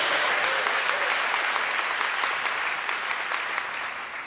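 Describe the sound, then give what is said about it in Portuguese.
A crowd claps for the Lord in steady, dense, continuous applause that holds strong throughout before easing slightly toward the end, with no talking over it. “Dá uma salva de palmas ao Senhor, dá um glória a Deus em nome de Jesus.”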